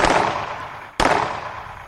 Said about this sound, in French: Et puis, une déflagration assourdissante retentit.